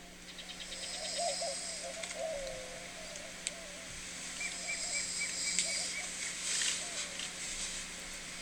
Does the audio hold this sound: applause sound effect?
no